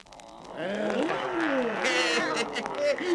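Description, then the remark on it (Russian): Several voices growl and roar together in imitation of lions and tigers, a loud, continuous jumble of rising and falling vocal roars lasting about three seconds. “А рычать, как львы и тигры, можете?”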